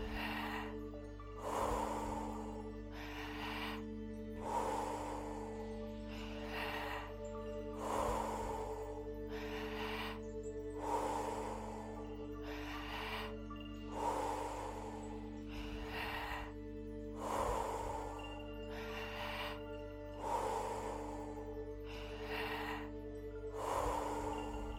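deep rhythmic breathing

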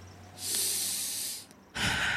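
deep breath in

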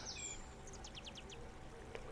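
birds chirping

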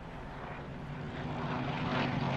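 airplane flying overhead

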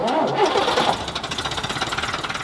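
bus engine starting

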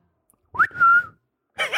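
wolf whistle

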